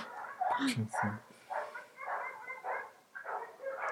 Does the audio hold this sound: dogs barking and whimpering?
yes